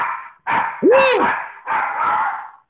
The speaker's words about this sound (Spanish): Con efectos especiales ah, de perro. Bienvenido a la edición especial del playlist eh, con sonido de perrito incluido.